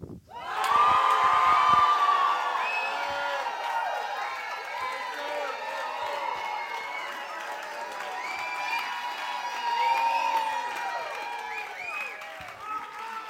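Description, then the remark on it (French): A large audience cheers, shouts and applauds loudly and continuously, a dense wall of overlapping voices and clapping that swells slightly near the end. “Donc, euh, la raison pourquoi je voulais que vous applaudissiez puis vous criez tellement fort,”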